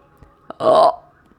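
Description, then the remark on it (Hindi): A single loud, throaty burp lasting about a third of a second, preceded by a small click and followed by quiet; a voice performs it as a dog in a story belching loudly. “उसने ज़ोर से डकार मारी”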